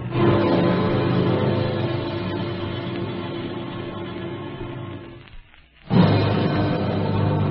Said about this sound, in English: And she made Gretel run back and forth from the stove to the woodpile till the fire under the oven was roaring.